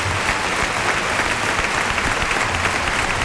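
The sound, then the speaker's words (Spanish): A large bullring crowd at the Maestranza applauds steadily in a dense, unbroken ovation as Tomás Rufo dedicates the bull to José Antonio Carretero at his farewell as a bullfighter, the clapping loud and continuous throughout with no pauses and no voices standing out. “Sigue la ovación mientras Carretero recibe ese brindis de Tomás Rufo en su despedida como torero.”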